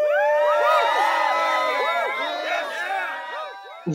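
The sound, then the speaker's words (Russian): A loud crowd cheers and whoops over applause, a dense, continuous wash of many overlapping voices that lasts about four seconds before cutting off abruptly. “Сейчас будут аплодисменты.”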